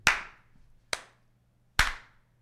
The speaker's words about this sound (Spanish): Entonces la gente empieza a aplaudir. Y llega un momento en que los aplausos se van callando y se oye.